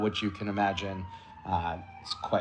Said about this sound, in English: Um, and I apologize for the siren in the background. I live right on the corridor to Mount Sinai Hospital,